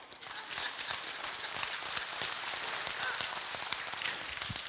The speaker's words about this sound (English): It's okay, you can clap.